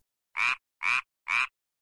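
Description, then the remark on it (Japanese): Three short, evenly spaced frog croaks sound loud against silence, each a raspy burst with a steady rhythm. “そしてカエルのゲロゲロはクローク。”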